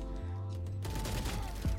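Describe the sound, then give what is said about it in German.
A low electronic hum gives way to a loud burst of rapid automatic gunfire from a GX Spectre in a video game, the shots running together into a dense rattle for about a second. No one speaks. “Der GX Spectre ist aber auch richtig wild.”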